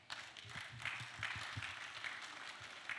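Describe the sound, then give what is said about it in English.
A church audience claps steadily throughout, a dense wash of many hands, sustained for the full few seconds without any speech over it. “If you want to clap for him, clap for him.”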